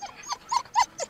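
A small, temperamental dachshund barks in a quick series of about four sharp, high yaps, fairly loud, with no one talking.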